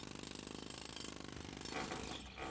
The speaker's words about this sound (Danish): Hvad er det for noget larm? siger Geo og åbner sine øjne. Lyden kommer fra byggepladsen.